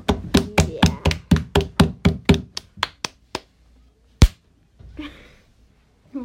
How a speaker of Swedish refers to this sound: den var ganska bra, den får du en applåd för.